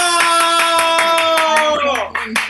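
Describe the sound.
Audience applause, loud, with quick, fairly even claps throughout, under a sustained, held voice tone that bends downward near the end before a few final claps.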